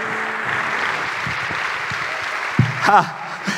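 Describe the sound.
A church audience claps for the Lord Jesus Christ in a steady, dense wash of applause that holds for several seconds, with a brief raised voice calling out over it near the end.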